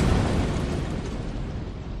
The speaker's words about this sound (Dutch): Een maand later, op 2 juni 1980, om kwart voor acht ochtends, klinkt in Nablus het geluid van een explosie.